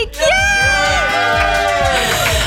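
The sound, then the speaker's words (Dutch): A live audience at the eighth edition of the radio show Toet Fabienne on Good Life Radio, broadcast live at the Mediapark, cheers loudly and continuously, a dense wash of shouts, whoops and high-pitched voices with no pause, over a steady low rhythmic thump underneath. “En zoals jullie net al konden horen, met publiek!”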